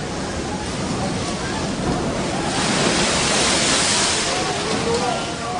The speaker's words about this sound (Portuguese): Naquele momento, o barco já estava no meio do lago. E as ondas batiam com força no barco, porque o vento soprava contra ele.